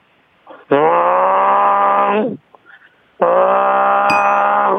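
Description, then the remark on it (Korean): A voice imitates a bullfrog's mating call with two long, deep, buzzy drones, each held for about two seconds, loud and steady, with a short pause between them. “아, 요번에는 또 황소개구리가 구애하는 소리.”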